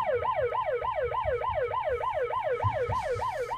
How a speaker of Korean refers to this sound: 그 사이 경찰 사이렌은 점점 커지고 있었습니다.